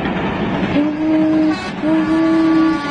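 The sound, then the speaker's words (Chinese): A small train rumbles steadily along while its whistle sounds twice as it arrives at the station, calling passengers to get off: two long, steady tones with a short gap between them, loud over the continuous running noise. No one speaks. “小火车拉响汽笛，请乘客们下车。”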